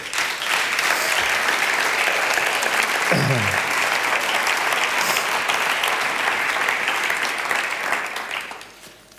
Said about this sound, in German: So, ihr dürft euch setzen, gebt ihm mal einen Applaus.